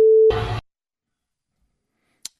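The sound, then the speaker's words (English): A loud, steady censor bleep tone covering profane language lasts a fraction of a second, then is cut off by a brief harsh burst of noise, followed by near silence and a faint click. “you you hear we we have several beeps there because we we have to because of the language uh, that was used”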